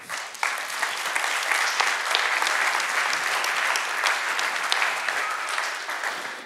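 Sustained audience applause for an electric guitar player, a dense, even clatter of many hands clapping steadily for several seconds at a fairly loud level, with no one speaking over it.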